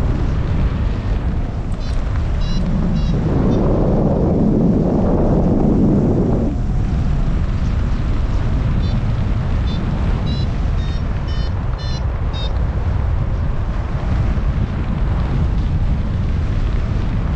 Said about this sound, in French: Ah le vent il a ouais il est plutôt nord même